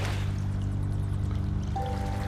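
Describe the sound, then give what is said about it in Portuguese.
Steady flowing water ambience of piped water, a continuous rushing wash with a low droning hum underneath, even in level throughout and with no voices. “A água encanada que tá seguindo vocês ali, ela parece ficar mais para fora dessa dessa antessala.”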